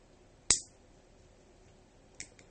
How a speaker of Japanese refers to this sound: ごめん、ライター。つける前に、音量差、音量注意っていうの忘れてた。